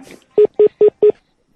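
Four short, loud telephone keypad tones from a telephone answering machine beep in quick, even succession, clear, followed by silence.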